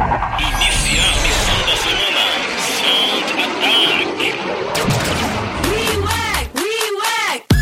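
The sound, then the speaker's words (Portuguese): A loud, sustained, powerful jet engine roar fills the whole stretch, ending in a few rising and falling whooshing sweeps as the fighter jet takes off and accelerates away. “solicitando permissão ao controle de tráfego aéreo para a decolagem. Permissão concedida.”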